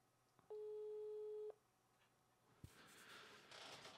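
A video call ringing tone sounds once as a steady electronic tone lasting about a second, followed by a sharp click and soft rustling noise; no one speaks.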